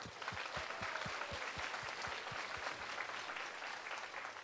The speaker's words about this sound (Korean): 어, 여러 의료팀, 안내팀 모든 부분에 헌신한 우리 스탭들에게 다시 한번 박수를 한번.